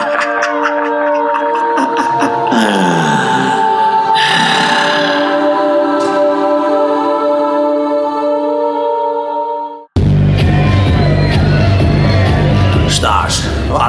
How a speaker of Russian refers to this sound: довольные кричат. Возвращение, босс! Босс вернулся!